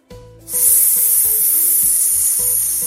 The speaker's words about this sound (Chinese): 嘶的声音。大熊的嘴巴里吐出一团黑色的烟。